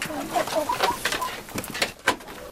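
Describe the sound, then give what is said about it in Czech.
A flock of about 50 chickens clucks and chatters in a busy, overlapping way, with short clipped calls and a few brief bursts, while faint voices and rustling sit in the background. “Teď jsme u králíku a u slepic.”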